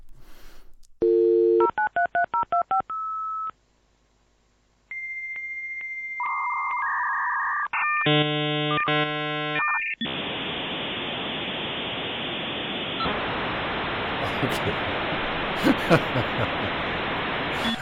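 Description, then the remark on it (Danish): A dial-up modem connects to the internet: a quick burst of touch-tone dialing, then shrill handshake beeps and warbles, giving way to a loud, steady hiss of static screeching. No voices. “Og det var jo altså, Anders, hver evig eneste gang, at man skulle på internettet.”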